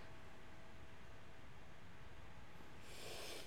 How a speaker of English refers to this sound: Bed sheets rustling in the dark as if some disturbed sleeper was attempting to get all too comfortable in the bottom bunk.